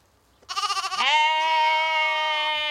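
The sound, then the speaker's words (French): A single Ouessant sheep, a small breed, bleats loudly on the UNIL university campus, opening with a quavering, pulsing tremble before settling into a long, sustained nasal cry of about two seconds. “L'introduction des moutons d'Ouessant à l'UNIL a aussi un autre but.”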